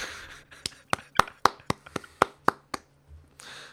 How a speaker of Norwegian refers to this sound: Den fortjener ei lita klapp.